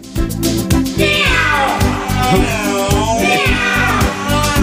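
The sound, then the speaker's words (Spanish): An electric guitar bends and slides its notes into wailing, meow-like cries over a steady band backing with a regular beat, the cat-like phrases returning twice across the passage. “Un gato, ¿no?”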